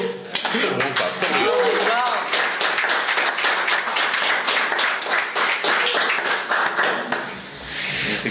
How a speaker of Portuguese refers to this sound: Nós, uh, só, só uma nota para as pessoas que estão a ouvir. Estas palmas são todas gravadas.